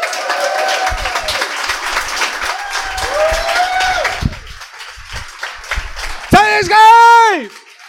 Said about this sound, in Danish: Giv en stor hånd til vores første gæst. En rocksanger, mine damer og herrer.